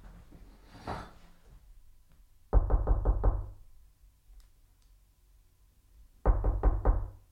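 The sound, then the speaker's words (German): Two bursts of firm knocking on a door, each a quick run of about four to five raps, separated by a few seconds of quiet; fairly loud, no voices. “Und zwar haben wir äh, von Hermann Wes Mann an der Tür.”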